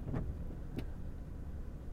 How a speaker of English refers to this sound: There they go. I'm just sitting in the driveway waiting for them to move the mini truck. We drive these Japanese mini trucks Daihatsus, Mitsubishis, and they are they're just hilarious little things, little three-cylinder